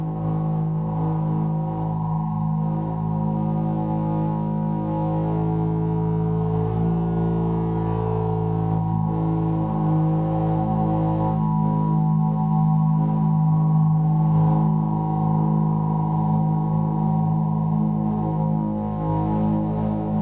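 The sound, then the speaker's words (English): Steady, dense drone of layered sustained tones from a giant balloon art piece with rings projected onto the balloon in real time, humming and overlapping with slowly shifting harmonics, holding at an even, fairly loud level for the whole stretch with no voices. “That piece is also very much influenced by Pauline Oliveras uh, and her drone work and her, you know, very her, interest in this uh, these drones and tones over time.”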